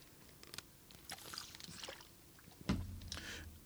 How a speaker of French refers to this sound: Je me prends ma gorgée, puis on se commence